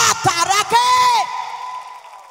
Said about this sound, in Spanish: ¿Habrá alguien aquí que pueda dar un mejor aplauso?